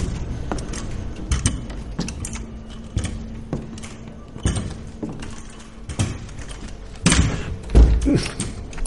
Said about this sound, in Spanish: ¡Ay, pinche puerta!